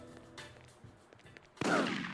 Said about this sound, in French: Ah, vous avez entendu le bruit là que vous êtes euh, qu'on entend là C'est ce qui a été samplé. Euh, c'est le bruit du game over. Voilà, dès que tu dès que t'as un game over dans The Getaway, t'entends ça